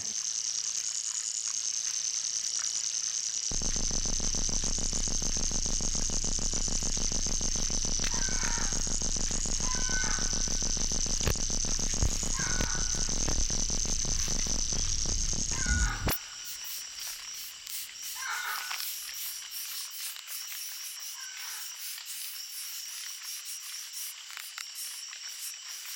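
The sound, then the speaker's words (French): Very large ants, about 2-3 cm long, stridulate in a continuous high-pitched rasping drone, steady throughout, with scattered short chirps over it and a low rumble underneath for the first part. No one speaks. “des stridulations qui sont audibles, encore une fois, à l'oreille”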